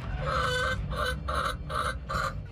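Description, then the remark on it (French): Hens in a henhouse in the south of the Lyon region, France, cluck in a steady series of five short bursts over a low background hum, moderately loud, with no talking. “Plus au sud, on prête attention aux œufs des poules.”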